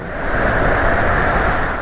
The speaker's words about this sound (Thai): ขณะเดียวกัน ก็มีลมกันโชกแรงพัดมา เมฆลอยผ่านไป แล้วก็เริ่มกลายเป็นสีดำคลื่นในทะเลสูงเกือบเท่าภูเขา